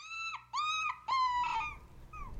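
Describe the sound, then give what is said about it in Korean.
A puppy whimpers, giving four thin, high-pitched whines in quick succession. The third is the longest and the last is faint. No one speaks. “그때 상황을 눈치채기라도 한 듯 강아지는 마녀의 얼굴을 올려다보며 꼬리를 흔들었다.”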